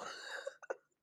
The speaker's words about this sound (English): God, I gotta sneeze again. Bless you.